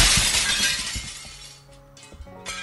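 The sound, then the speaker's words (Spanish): A loud crash of a bar's glass window shattering as a football hits it, followed by a scattered cascade of tinkling shards falling and bouncing for a couple of seconds, with no voices. “En ese momento, este cristal este de aquí estalló en mil pedazos.”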